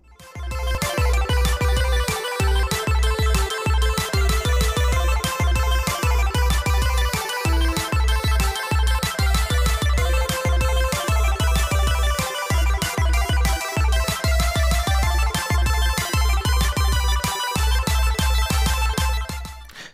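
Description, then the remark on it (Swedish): A loud, upbeat electronic intro jingle with a steady pulsing beat and bright, chiming synth melody, playing for about twenty seconds with no voices. “Kör jinglet.”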